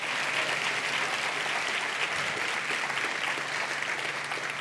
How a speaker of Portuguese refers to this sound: Eu posso ouvir o amém. Você pode aplaudir esse Deus com força.